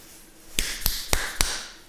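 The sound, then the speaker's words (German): Four quick, evenly spaced knocks rap on the window pane of a parked car, each sharp tap leaving a brief bright ring. Fairly crisp, with no voices. “Klopfen an die Scheibe.”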